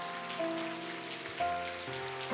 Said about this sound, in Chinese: 我们给主一个最热烈的掌声啊！